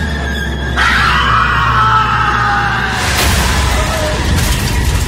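A man lets out a loud, anguished scream of pain while feeling along a wall for a hidden door; it starts suddenly, holds for a couple of seconds with a sliding pitch, then gives way to a rough, rumbling wash of noise.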